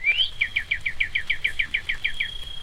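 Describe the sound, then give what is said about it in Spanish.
A gentle birdsong wake-up alarm tone: a rising whistle followed by a quick, evenly spaced series of about a dozen bright chirps over a faint steady tone, clear with no talking. “Entonces trato de buscar la, la alarma que suene más bonita.”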